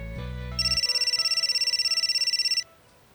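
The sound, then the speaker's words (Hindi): A mobile phone ringtone for a call from his mother, as he sits on a cot at a roadside dhaba stop for breakfast, trills in a rapid, steady pulsing pattern for about two seconds, loud, then cuts off abruptly. A brief low hum precedes it. “रास्ते में ब्रेकफास्ट के लिए एक ढाबे पर रुका खाट पर बैठा ही था कि माँ का फोन आया”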